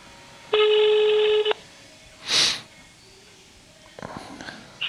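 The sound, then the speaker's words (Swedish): A single steady, buzzy ringback tone sounds for about a second on an outgoing phone call to Biotopia, followed by a brief rushing noise and then a faint voice picking up. “Nu ringer jag”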